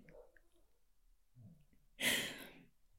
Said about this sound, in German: Hört ihr im Hintergrund meinen kleinen Hund schnarchen?